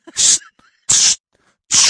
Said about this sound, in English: I just kept pepper spraying in front of me to melt the ice.